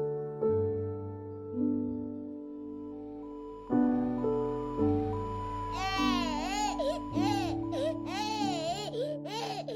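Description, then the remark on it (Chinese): An infant cries in loud, wavering wails that rise and fall in pitch, coming in repeated bursts through the second half over steady, low sustained tones. “这个小婴儿的声音是我。”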